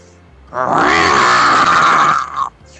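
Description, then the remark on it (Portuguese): A person imitates a lion's roar: one loud, sustained, growling bellow that lasts about two seconds and then cuts off, dominant over a quiet background. “O leão! O leão é foda!”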